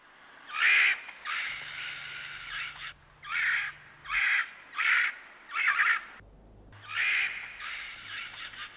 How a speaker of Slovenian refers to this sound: Kakapo. Ja, sem, sem slovenil izraz, kot si misliš, močeš. Um, gre za, gre za um, pasovane pasov je poslovenjen izraz. To zato, ker je v bistvu to ena papiga, ne? to je ta pa, ki se dela, da je sova.